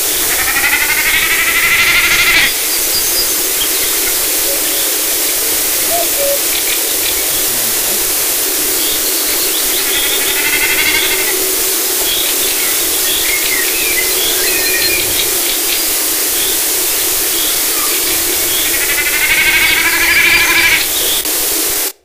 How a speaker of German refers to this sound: sondern durch das Vibrieren der Schwanzfedern. Und da sieht man also die Verbreitung der Bekassine.